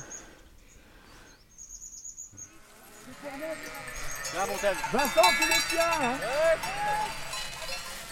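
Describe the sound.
A flock of sheep approaches, with many bells clanking and jangling and overlapping bleats growing louder and busier as the animals draw near. A man calls out briefly at the start.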